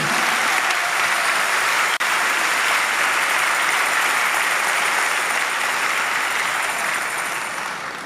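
An audience applauds in a steady, dense wash of clapping that holds loud for about eight seconds with no voices, then begins to taper slightly toward the end.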